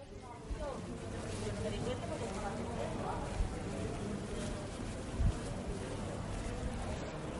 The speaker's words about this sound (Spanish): Ahora ya, en el presente, en este 2020, este loco 2020 Em, hemos dado un paseo literalmente por la calle Larios, que en estas fechas tenía que sonar con mucho más ambiente y mucho más ruido, pero realmente suena así.